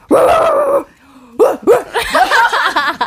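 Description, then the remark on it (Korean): A person imitates a dog with their voice: first a sustained, whiny howl, then a short pause and a rapid string of loud, yappy barks that rise and fall in pitch. “아, 이건 개소리구나.”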